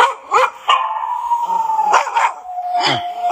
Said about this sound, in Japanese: いっぱい、いっぱい、あの、いっぱいいるのかな。はい。ワンちゃんが、どう考えても、えー、威嚇してるとしか思いませんけれども、はい。